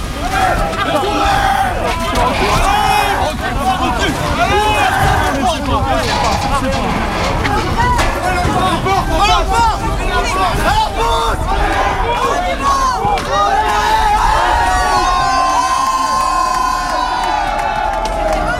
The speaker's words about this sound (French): On est devant un incinérateur euh, de déchets et euh, il y a toute une foule de manifestants qui vient de forcer le blocage euh, des CRS.